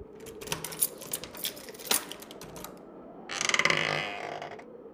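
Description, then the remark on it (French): Several quick footsteps tap across a hard floor, followed by a brief creaking, rustling noise like a door being opened, with no one speaking. A man walks to the door of a fort at 11:30 at night and goes out into a small courtyard. “Il se dirigea vers la porte et sortit dans une petite cour.”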